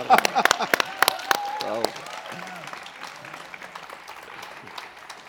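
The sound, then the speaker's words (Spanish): An audience at a poetry event breaks into applause as a last poet is welcomed, many hands clapping loudly at first with a few voices calling out, then the clapping thins and fades to scattered claps. “Un aplauso”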